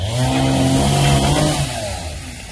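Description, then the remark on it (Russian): A chainsaw roars loudly, its engine whine steady and then dropping in pitch as it bites into wood. Rescuers in St. Petersburg are cutting up a tree blown down by strong winds onto cars in a courtyard. No one speaks. “А в Питере спасатели, видите, что делают? Пилят.”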